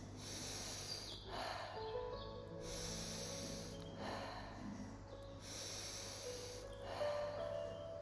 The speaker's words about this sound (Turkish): Gözlerimi kapatıp nefesimi gözlemlemeye başlıyorum. Burnumdan nefes alıyorum, ağzımdan nefesimi bırakıyorum. Nefesime odaklayayım.